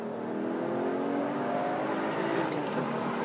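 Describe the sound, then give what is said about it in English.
A sports car engine in third gear pulls hard and steadily under acceleration, its droning tone climbing gradually for a few seconds, loud, with no voices. “Sticking in the third gear again, slowing down for corner one.”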